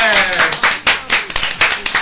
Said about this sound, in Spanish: Bueno, en un ratito tenemos más chistes. ¡Aplauso entonces!